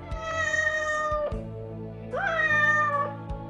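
A cat meows twice in drawn-out, wavering calls, the second rising sharply at its start, with a low steady hum running underneath and a few soft thumps between them.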